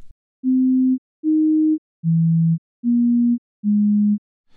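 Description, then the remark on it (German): Five pure electronic tones, randomly generated by a computer and not belonging to any musical scale, play one after another at a steady pace, each about half a second long, hopping between slightly different low-middle pitches in an irregular melody, clear and alone. “Es beginnt mit einer Tonfolge, die völlig zufällig vom Computer erzeugt wird.”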